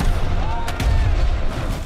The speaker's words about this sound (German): Deckt die Kanonen auf! Kanonen bereit! Feuer! Feuer! Feuer!